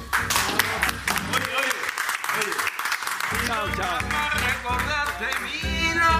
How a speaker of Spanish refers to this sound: Muy bien, señores. Bye bye. Vamos a despedirnos con un gran aplauso.